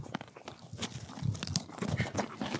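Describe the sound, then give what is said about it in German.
Wet crunching and munching as donkeys or a Shetland pony chew noisily at the Wentorfer Lohe, with irregular bites and grinding bursts repeating steadily over a couple of seconds, no talking. “Ich sage vielen Dank fürs Zuhören, während hier weiter geschmatzt wird.”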